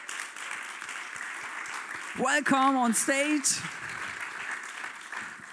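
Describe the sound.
An audience claps steadily throughout, a dense, continuous patter of many hands, as applause for a woman who had sung there, while a man's voice briefly calls out an announcement over the applause in the middle.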